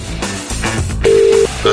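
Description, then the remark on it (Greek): A phone call being placed: a steady electronic ringback tone sounds twice, a long beep then a shorter one, over a dense bed of background music. “Και παίρνουμε τηλέφωνο.”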